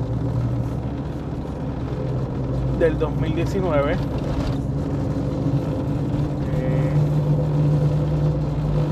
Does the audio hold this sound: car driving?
yes